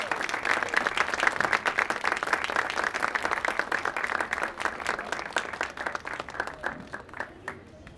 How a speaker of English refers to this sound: So I would love to bring him out here. Can we have Robert Capron? And a round of applause.